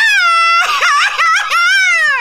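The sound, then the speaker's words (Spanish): A man cries, wailing in a high, strained falsetto, a sustained cry that breaks into wavering sobbing pulses midway before trailing off in one long, falling moan. Loud, with no other sounds. “Él no está gritando un grito mexicano, él está llorando.”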